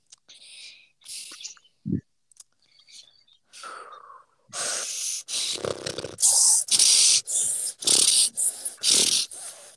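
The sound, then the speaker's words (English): A person makes a rapid series of loud, breathy snorts, imitating a horse. The bursts come in a rough rhythm after a few softer breathy sounds. “Sound like a horse.”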